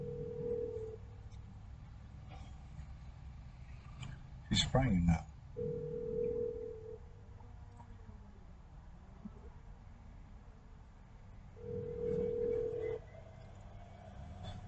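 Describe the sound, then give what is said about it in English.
A phone rings in steady repeated bursts, each a sustained electronic tone separated by long pauses, going unanswered while a person speaks quietly in between. “Uh, since I said she's not going to answer the phone, she's not going to answer the phone.”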